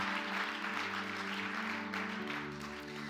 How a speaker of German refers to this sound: Hey, sind wir ready, nochmal Pastor Freimund und Jen einen großen Applaus zu geben und sie zu ehren? Danke für alles, hey.